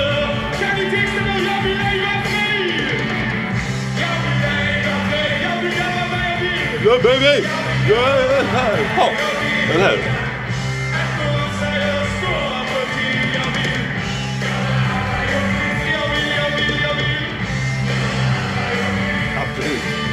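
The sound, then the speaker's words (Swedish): A rock singer belts out raspy, swaggering vocals likened to a singer's over a loud, full band, with yelps and whoops rising midway; a voice briefly talks near the end. “Hallå, lyssna efter likheterna med … så kommer ni mm. höra det nu.”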